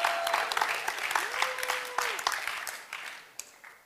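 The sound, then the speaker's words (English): An audience applauds with dense, steady clapping that fills the whole stretch and gradually thins out toward the end, with a brief sustained tone, like a whistle or cheer, partway through. “Let's hear it for middle-aged people.”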